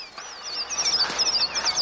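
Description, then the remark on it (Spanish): A flock of birds takes flight and calls out together in a steady stream of shrill, overlapping cries, loud, with no voices present. “Un pájaro levanta el vuelo. Los demás lo siguen. El aire se llena de graznidos y gritos de niños.”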